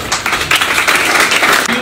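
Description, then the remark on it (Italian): A dense burst of audience applause, many hands clapping steadily at a fairly loud, even level throughout, with no voices standing out. “Applausi.”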